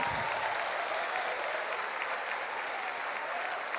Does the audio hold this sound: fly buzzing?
no